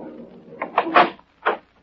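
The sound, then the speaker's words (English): An apartment door is opened by a police sergeant, with a few short creaking squeaks and a final clunk, heard on its own over a faint low background hum. “When I finally got to his door, it was opened by Sergeant Marty Moran of homicide.”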